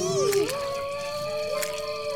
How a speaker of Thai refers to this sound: จะมาหอนอะไรตอนนี้วะไม่ตลกนะเว้ย